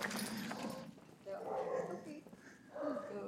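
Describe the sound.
Small dogs bark and yip excitedly in short, high-pitched bursts at a visitor's arrival, with a couple of whiny yelps mixed in, while people talk in the background.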